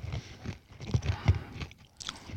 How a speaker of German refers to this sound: ich höre nichts, da knackt in meinem Mund.